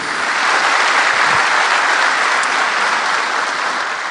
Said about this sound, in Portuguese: Pode aplaudir o Senhor. É isso mesmo.